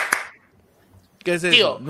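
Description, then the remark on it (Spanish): A single sharp hand clap snaps out to call someone, followed by a moment of quiet before a loud, drawn-out voice begins. “Formas en las que no debes llamar, cuidado la caga. Formas en las que no en la que no debes llamar oh. así. Aplauso, exacto”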